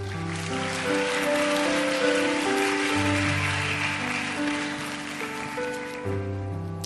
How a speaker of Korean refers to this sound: 나오실 때 사랑과 격려의 박수로 환영하도록 하겠습니다.